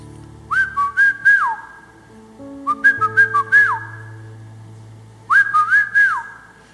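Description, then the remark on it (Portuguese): A person whistles a short melodic phrase three times, imitating a whistle heard in their ear, each burst of quick notes ending in a sliding rise and fall, clear, over a soft sustained background tone. “E eu estou assobiando, o assobio que eu estou ouvindo.”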